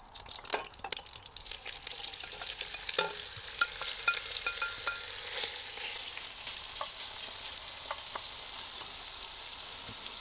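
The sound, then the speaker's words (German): 500 grams of diced pork belly sear hard in hot clarified butter in a pan, giving a steady hiss and crackle, with occasional scraping clicks from stirring throughout. No one speaks. “Mit den 500 Gramm Bauchspeck, die wir jetzt in kleine Würfel geschnitten haben. Und braten das richtig scharf an, sodass wir da erstmal ein tolles Aroma bekommen.”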